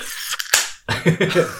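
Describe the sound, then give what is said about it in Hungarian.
A single sharp, explosive sneeze with a quick breathy lead-in, followed by a moment of muffled voiced sound or talk right after. “Egészségedre.”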